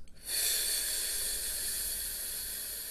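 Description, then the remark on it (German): During a breathing exercise, a quick, faint breath in, then a long, steady exhale pushed through the lips as a continuous 'fff' hiss, even, lasting to the end with no talking. “Wir atmen gemeinsam ein und auf F aus.”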